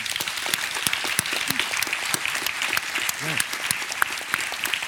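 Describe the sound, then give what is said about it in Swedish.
Sustained audience applause from the floor, given as thanks: a steady, dense wash of many hands clapping at once, with sharp individual claps standing out and a faint voice or two briefly audible underneath. “Ni ska få Tackar. en liten present och en enormt stor applåd från golvet.”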